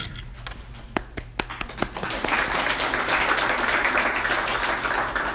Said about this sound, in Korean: 우리 인사하실 때 박수 할까요?